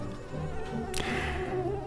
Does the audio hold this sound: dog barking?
no